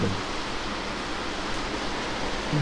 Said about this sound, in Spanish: Bien. Se vino la tormenta, ¿no?